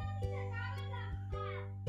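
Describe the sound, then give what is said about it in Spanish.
A young boy shouts at a girl in a drawn-out, high-pitched voice, muffled and fairly faint, over a steady low electrical hum with a few soft knocks. “y se escuchó por ahí, fue mi sobrino gritándole a mi sobrina.”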